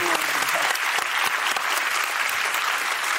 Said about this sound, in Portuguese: Vamos aplaudir.